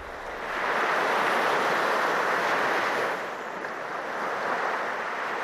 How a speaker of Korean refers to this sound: 한참 동안 수화기 너머로 파도 소리를 들려줬다.